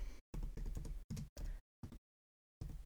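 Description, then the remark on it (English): Crisp computer keyboard typing in quick bursts of clacking keys, separated by brief pauses and one longer silence, with no voices. “Uh, here's some nice, some nice ASMR typing for y'all.”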